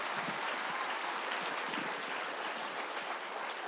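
Steady applause from a crowd, a dense crackle of many hands clapping at an even level for several seconds with no voices rising above it.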